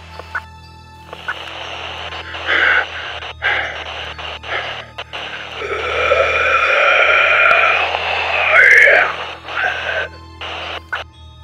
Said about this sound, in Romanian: Se auzi un alt zgomot static, cuplat cu sunetul de gâfâituri întrerupte și același țipot monstruos, înainte ca acesta să tacă complet.